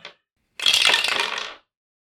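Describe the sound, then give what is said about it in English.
Dice are rolled for a power check and come up 52: they clatter and rattle for about a second, a dense burst of bright, hard clicks that tumble and settle, preceded by a brief faint tap. “Okay, uh, roll a power for me real quick.”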